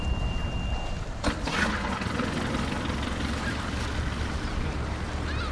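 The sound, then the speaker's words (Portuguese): A fishing boat chugs steadily through the water of the Ria Formosa near the village of Culatra, Portugal, its low engine rumble continuous beneath splashing and wind noise, with a brief burst of spray early on and no voices. “Como é que chama esta belíssima embarcação?”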